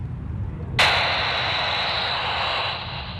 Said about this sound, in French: Et ça c'est le bruit de radio. Et vous êtes relié directement à la tour de contrôle, c'est ça Non, je suis pas relié à la tour de contrôle, je suis relié avec les avions.